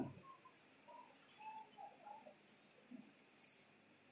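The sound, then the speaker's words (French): Faint bird calls scattered through a quiet outdoor background: short, high chirps and a few soft whistled notes come at irregular intervals, with no one talking. “j'entends les cris des oiseaux là, on se pose même pas la question, mais comment ces oiseaux communiquent-ils entre eux”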